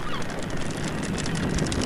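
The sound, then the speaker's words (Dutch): Gulls call loudly and continuously over the Scheldt as its frozen surface breaks open, with several harsh, overlapping cries blending into a dense, noisy chorus that fills the whole moment. No one speaks. “Voor het eerst sinds lang hoorden we de meeuwen hard roepen.”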